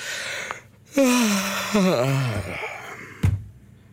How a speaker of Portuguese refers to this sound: Espero que esse bocejo tenha sido bom, é?